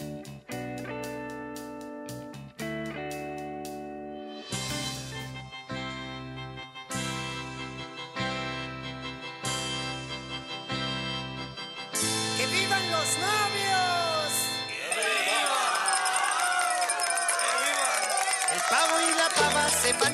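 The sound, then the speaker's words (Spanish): A bouncy children's song plays at steady volume, a bright keyboard melody pulsing in even beats before the arrangement swells into a busier, fuller section with sliding, warbling accents near the end. “escuchamos un pedacito de este tema y nombramos los, programas más actuales dale dale, dale.”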